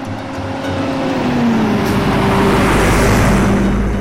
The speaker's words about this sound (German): Da fährt er hin, der Bus, und schnell wird klar, ich bin zu früh ausgestiegen.